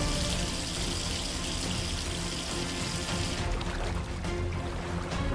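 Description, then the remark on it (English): Ocean water flooding a sinking ship through its main drainage pipes gushes and pours loudly and steadily out of toilets and showers, a dense rushing stream that runs without pause, turning slightly brighter and more splashy near the end. No voices. “The ocean water was flooding the ship through the main drainage pipes, which meant that it was uncontrollably spilling out of toilets, showers, and the water disposal system.”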